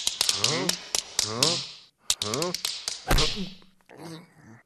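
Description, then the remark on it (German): Water from a melting snowman drips onto a hard floor in a quick, irregular run of sharp taps and splats, while voices talk over the dripping. “Der Schneemann, der schmilzt nämlich und das Wasser klatscht auf den Boden.”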